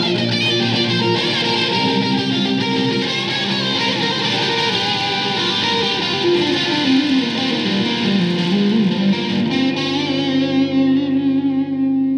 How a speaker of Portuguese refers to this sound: Roda a vinheta!